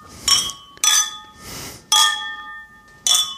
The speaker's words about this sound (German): Und dann würde ich sagen, stoßen wir an auf das neue Jahr. Ja. Prost. Prost.